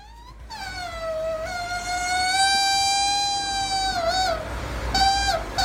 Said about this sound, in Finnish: Onko tämä sun imuri, joka vuotaa? Tämä on mun imuri. Tämä on mun imuri.